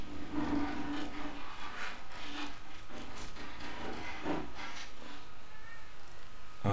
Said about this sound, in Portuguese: tem um gato louco pra entrar aqui, ó.